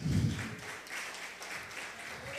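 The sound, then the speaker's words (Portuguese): An audience applauds the Lord for his word, a steady wash of many hands clapping at moderate loudness, opening with a brief heavier low rumble before settling into even, sustained applause. “Aplauda o Senhor pela palavra dele.”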